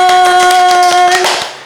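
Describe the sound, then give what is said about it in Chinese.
A burst of rapid, steady applause and cheering from a studio audience welcoming a guest on the show Tuesday Meditation Class, with a sustained high tone ringing over it before the clapping fades out. No one speaks. “来到我们现场，欢呼声！”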